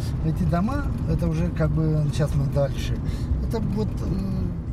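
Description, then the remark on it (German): The mayor's car drives through the village of Kitrosu, Moldova, its steady low engine rumble running continuously beneath people talking. “Im Auto des Bürgermeisters fahren wir durch Kitrosu.”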